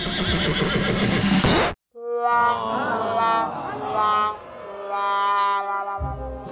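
A loud burst of noisy crowd-like sound cuts off abruptly, followed by a horse neighing: a long, quavering whinny that wavers up and down for several seconds, clear.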